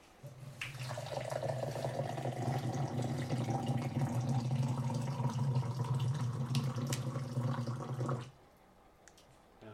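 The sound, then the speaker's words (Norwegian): Hot water pours steadily over a little crowberry in a cup or container for about seven seconds, a continuous splashing fill with a rising tone, then stops abruptly, leaving quiet. “Så det er bare bitte litt krøkebær oppi der, og så varmt vann.”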